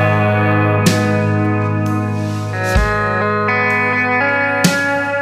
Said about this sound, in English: I love Beautiful. your, your brush work. That snare brush, like. Were you hitting the brush on that snare? That, yep, yep.